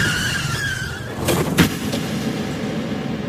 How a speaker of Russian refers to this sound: Он врезался в грузовик и погиб.